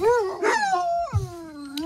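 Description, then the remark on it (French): A dog, a Labrador named Mouglis without a muzzle on a TGV train, howls and whimpers in two drawn-out wavering cries that rise and slide down in pitch, with no voices around. “L'histoire du chien Mouglis labrador sans muselière dans un TGV”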